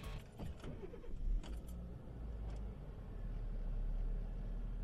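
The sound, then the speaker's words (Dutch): A car engine cranks and starts, then settles into a steady low rumble that builds slightly as it idles, with a few faint clicks and rattles early on. “Ik ga rijden, denk ik.”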